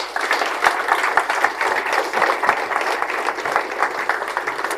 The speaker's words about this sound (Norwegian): Vi må gi de en god klapp.